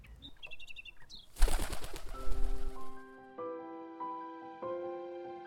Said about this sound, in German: Gustav beobachtet die Amsel, als sie ihre Schwingen ausbreitet.